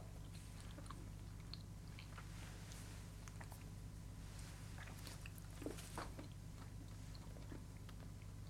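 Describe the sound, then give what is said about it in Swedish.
Wet chewing of candy while tasting to tell its flavours apart, with soft smacking and squishing sounds repeating irregularly over a steady low hum, no talking. “Tugg, tugg, tugg.”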